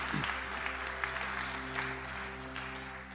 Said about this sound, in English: Can we give it up for those who put their faith in Jesus today? Come on.